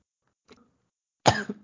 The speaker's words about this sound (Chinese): 他最近胃食道逆流，所以一直在咳嗽， 可能是压力太大。